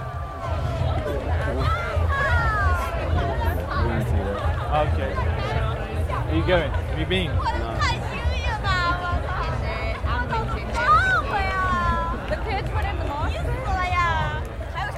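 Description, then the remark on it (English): A dense crowd of revelers, tourists, druids and Hare Krishnas murmurs and chatters among the stones at Stonehenge at 1.30 on summer solstice night, under a clear starry sky; many overlapping voices blend into a steady hubbub with occasional louder exclamations rising out of the babble. “Inside, it's a crush of nationalities, revelers, tourists, people a little stoned, a little high, druids, Hare Krishnas, people seeking answers, feeling the spirit of the place, or just coming to be here among the stones.”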